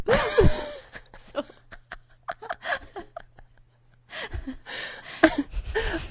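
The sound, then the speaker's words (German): A voice imitating a zebra, chirping and whinnying at the same time: a high warbling whinny mixed with squeaky chirps, then short clicking bursts, and laughter breaks out toward the end. “Weil ich habe gezwitschert und gewirrt gleichzeitig.”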